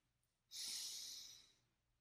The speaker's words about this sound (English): Let's begin with some breathing. Inhale